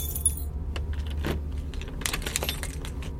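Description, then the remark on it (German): A bunch of keys on a keyring jangles and clinks in a rapid series of bright metallic rattles as keys are tried in a conference room door lock, over a steady low engine-like hum in the background. “Also ich nehme Schlüsselbund und mach's wie auch beim Reinkommen. Schau, was passen würde und probier's aus.”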